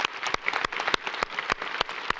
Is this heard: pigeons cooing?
no